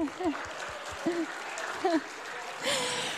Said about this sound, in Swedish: Ge honom en applåd.